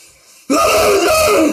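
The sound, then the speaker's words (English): A single loud sneeze bursts in abruptly after a near-silent pause, followed by a breathy, sustained exhale. Forceful, with no talking. “Just so I don't have to keep sneezing while we're live.”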